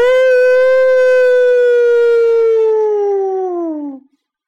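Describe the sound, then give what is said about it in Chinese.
In a narrated story, a single long, loud howl from a human voice imitating a wolf as a character looks up at the golden moon and howls with all its strength; holds a steady pitch for about four seconds before sliding downward and cutting off. “莫卡抬起头看着金色的月亮，使出浑身的力气，就像狼一样。放声嚎叫起来，嗷！”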